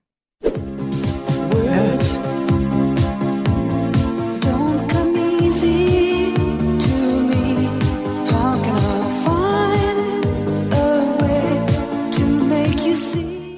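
A steady, full-band 1980s synth-pop track with a regular beat, sustained synth-like chords and a melodic line, playing loudly and continuously with no talking over it.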